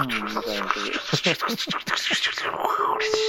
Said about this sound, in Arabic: صوت صوت الورق ذا ولا ايش؟ ايه ورق كوميك مانجا